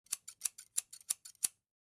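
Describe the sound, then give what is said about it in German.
A rapid series of about ten crisp scissor snips, fairly quiet, in a quick uneven rhythm lasting around a second and a half before silence, used as a censoring tone in a committee session recording where a speaker's consent was not given. “Haben wir diese Zustimmung nicht erhalten, hörst du diesen scheren Ton.”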